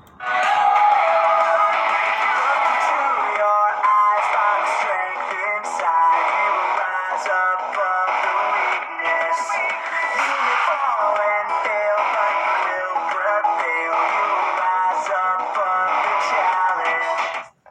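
A rock song plays continuously at a steady, fairly loud level, its sound thin and tinny with little bass, as if coming through a small speaker, with no one talking over it.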